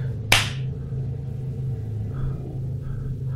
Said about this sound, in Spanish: Un sonido se empezó a escuchar a lo lejos y luego junto a nosotros, y escuché muy claro el sonido de una cachetada.